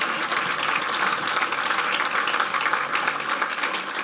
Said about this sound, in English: Let's all clap for them that prayed that prayer. Well done.